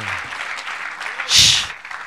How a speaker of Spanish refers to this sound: Démosle un buen aplauso al Señor esta noche. Gloria a Dios.